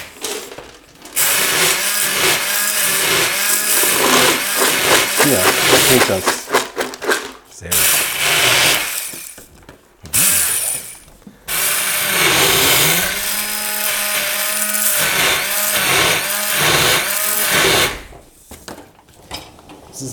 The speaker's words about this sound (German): Leinsamen. Die ja. würde ich gerade einmal schnell durch äh, pürieren, sage ich mal. Also einmal mit dem Stab durch, weil dann sind die nämlich.